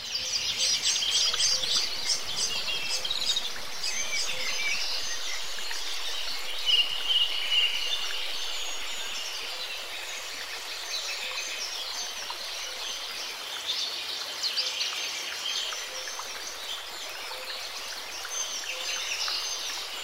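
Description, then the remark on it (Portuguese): A dense chorus of birds in the trees of a garden chirps and sings continuously for the whole stretch, many overlapping calls at a steady, fairly soft level, with a faint hiss of outdoor ambience and no one talking. “Nosso simpático anfitrião faz um gesto em direção às árvores e os pássaros começam a cantar.”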